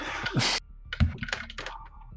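Uneven clatter of computer keyboard keys being pressed in irregular clusters as a cat steps across the keyboard, with a brief hiss of noise at the start.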